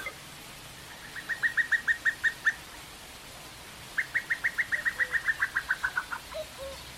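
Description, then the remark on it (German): Two bursts of a female cuckoo's rapid, bubbling trill as she calls a male to her, each a quick run of a dozen or so notes, with fainter low calls near the end from another male cuckoo approaching from a distance. No voices. “Aber das Weibchen hat einen ganz anderen Ruf.”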